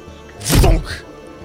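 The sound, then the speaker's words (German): A single loud door slam: a heavy, booming thud as the door smacks into its frame, with a brief rattling tail that fades within about half a second. “Die Tür klatscht in den Rahmen und landet direkt einen halben Millimeter vor der Nase von Justus gerade noch gefangen.”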